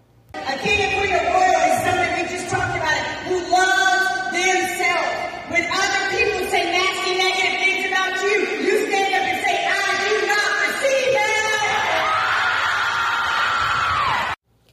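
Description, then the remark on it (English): A group of ninth graders screams, yells and hollers excitedly together, loud, with overlapping shouts and whoops continuing throughout like an excited crowd. “Now, notice the greatest part of that video is their reaction. They were screaming, they were hollering because I was teaching a group of young people at a young, tender age how to love themselves.”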